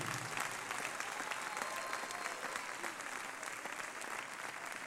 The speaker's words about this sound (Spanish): Ahora, Si le va a aplaudir al Señor, apláudele como Él se lo merece, hermano.